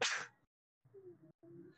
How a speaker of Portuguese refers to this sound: Não consegui espirrar direito, velho. Que desgraça, vou vontade de espirrar agora.